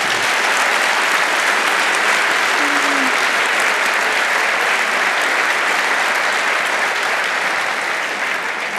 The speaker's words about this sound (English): Okay, thank you very much for that applause and thank you very much uh, to our speakers.